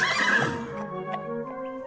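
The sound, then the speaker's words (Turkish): An old, weak horse whinnies loudly, a single shrill neigh that starts bright and breathy, then trails off into a wavering, descending tremolo over nearly two seconds. “Yaşlı ve güçsüz olan at böyle zor bir işi başaramayacağını bilerek sahibinin yanından ayrılmış, ağlaya ağlaya ormanın yolunu tutmuş.”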